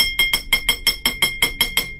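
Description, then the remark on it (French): Rapid, evenly spaced knocks on metal pipes in a tunnel, struck from the surface as a code signalling immediate danger, about a dozen sharp strikes in two seconds, each ringing with a bright metallic tone that fades quickly before the next hit. No voices. “J'allais le faire remarquer quand nous avons entendu les coups de la surface”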